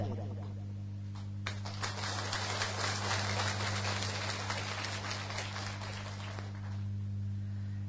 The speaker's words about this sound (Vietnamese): tràng vỗ tay của quý thầy và quý chú đó như là một sự cam kết và phát quyền để chúng ta đạt được nó đó là một điều rất là đáng tán dương